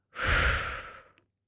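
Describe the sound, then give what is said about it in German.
A single long, breathy exhalation, fairly soft, fading out gradually over about a second with no talking. “Wir atmen ein, wir atmen aus”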